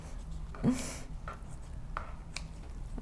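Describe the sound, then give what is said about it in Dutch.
Small scissors cutting through a supposedly old bread roll make a few soft, dry snips and crunches at uneven intervals. The sound is fairly quiet, with no one talking. “Oh, ik heb een klein schaartje gepakt, maar dat maakt net.”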